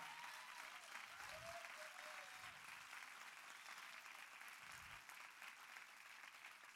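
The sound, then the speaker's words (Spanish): Sustained applause from a church audience, clapping for God, a dense steady wash of clapping that holds at an even loudness for several seconds, with faint low thumps and a few whoops mixed in. “Sí, vamos, dale un fuerte aplauso a Él.”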